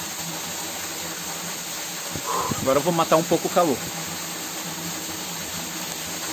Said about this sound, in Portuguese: Tomar um banho aqui nessa, nessa quedinha d'água